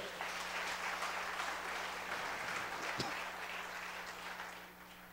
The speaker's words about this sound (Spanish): De un aplauso a Rey, dígale gracias Señor.